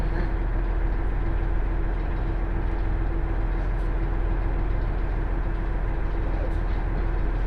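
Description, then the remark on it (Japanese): A JR Hanawa Line through train bound for Odate idles at Morioka station before its 12:37 departure, its engine holding a steady, low droning rumble with a faint constant hum on top, unchanging throughout, with no voices. “盛岡12時37分の発車です。発車まであと10分ほどお待ちください。”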